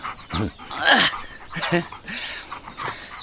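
A dog named Bixie lets out a series of short, excited barks and yips while playing fetch with a ball, four or five bursts spaced unevenly over a few seconds, with some panting between them.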